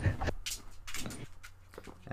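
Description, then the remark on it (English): A female part-husky dog whimpers and whines in a quick series of short, high-pitched bursts, moderately loud, with a soft background murmur underneath. “and my dog is acting weird.”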